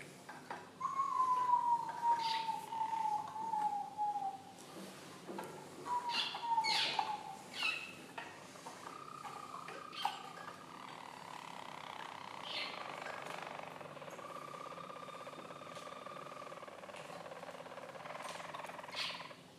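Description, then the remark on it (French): A stud of trained Harz roller canaries sing soft, low rolling song, a deep roll: smooth descending whistled tones, then sustained, purring trills that rise and fall over a steady faint hum. “un stam de Canaris du Harz”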